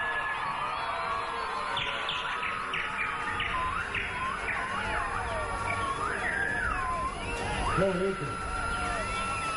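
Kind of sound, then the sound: bird, bird chirping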